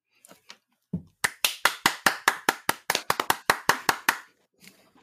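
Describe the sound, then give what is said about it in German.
A quick run of about fifteen loud, sharp hand claps in a steady rhythm, briefly speeding up midway, preceded by a few faint taps and no talking. “du darfst jetzt das klatschen, was du unbedingt wolltest.”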